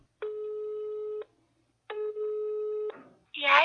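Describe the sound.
Two long, steady telephone ringback tones, each about a second, separated by a pause; a voice answers right after the second ring.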